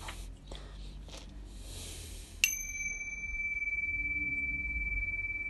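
A sound harmonizer, kept among crystals by an altar with a lit yellow candle and a glass of water, is struck once, giving a sharp attack followed by a pure, sustained ringing tone that hangs clearly over quiet, faint background noise until the end.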